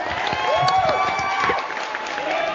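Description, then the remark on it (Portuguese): A crowd claps and cheers steadily, with dense overlapping applause and a few rising whistles cutting through the noise. “Pô, uma salva de palmas agora.”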